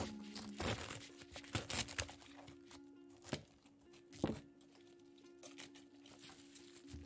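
Food preparation sounds in a kitchen, recorded with a sound-collecting device: scattered sharp knocks and crisp rustling at an irregular pace, over a steady low appliance hum, with no one talking.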